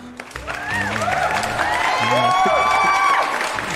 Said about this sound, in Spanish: Pues el conjuro sigue sin funcionar y, yo no dije bienvenidos y eso merece unos aplausos.